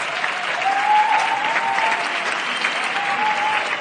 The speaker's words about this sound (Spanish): Y la gente aplaude.